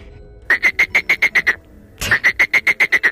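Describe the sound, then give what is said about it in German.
A voice imitates a frog with two quick bursts of rhythmic croaks, about eight evenly spaced pulses each, separated by a short pause. Loud, with no talking over it. “Wer ist das jetzt? Das ist der Frosch.”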